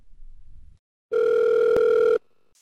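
A single steady electronic telephone ring tone of an incoming call sounds loud for about a second, a flat sustained buzz with a brief click in the middle, then cuts off abruptly.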